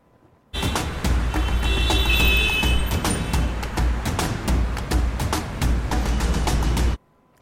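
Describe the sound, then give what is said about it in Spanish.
A steady wash of morning road traffic in the Taras area, seen toward Cartago, with low engine rumble and sharp clicks and rattles, vehicles passing continuously at moderate loudness for about six seconds, with no one speaking. “Cerramos este reporte del tránsito en el sector de Taras, la vista hacia Cartago con un tránsito bastante favorable esta mañana.”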